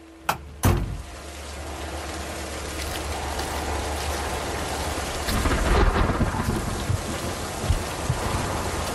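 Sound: pouring rain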